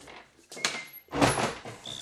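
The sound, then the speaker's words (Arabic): A door is opened in a few quick, noisy bursts of rattling and scraping, the loudest clatter coming in the middle before it settles. “حلوا الباب برا استنى استنى يا ولدي انا جيتكم”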